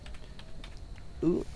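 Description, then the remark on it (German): Quick, irregular clacking of keys on a cheap 20-euro computer keyboard, moderately loud and sounding like a typewriter, as someone looks something up on the computer, followed by a brief burst of a voice near the end. “Der Moment, der Moment, wenn man deine 90er Jahre Tastatur klimpern hört.”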